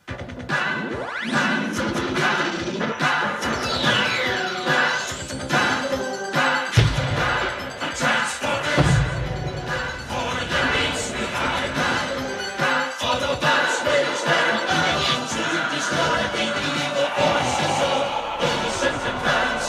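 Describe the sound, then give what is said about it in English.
The season three opening theme song of a TV show plays loudly with no talking, driven by sharp, punchy percussion hits including an odd sample on the snare drum, with a brighter, sweeping sound layered over busy instrumentation. “It's that weird sample that's on the snare drum and and the, you know the the the drummer, and I'm using that with air quotes”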